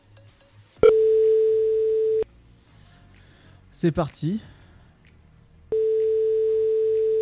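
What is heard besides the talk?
telephone ringing tone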